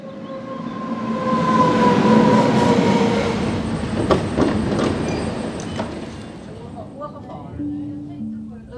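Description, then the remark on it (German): A train on the Albula line mountain railway rumbles steadily along the rails through spiral tunnels, with a sustained mechanical drone, squealing wheel tones and a few sharp clanks, while a voice talks over the noise near the end. “Auch das Mal reise ich wieder mit dem Zug”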